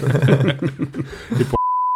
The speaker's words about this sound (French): Petit point de montage, petit point de montage. petit point de montage, il un bip.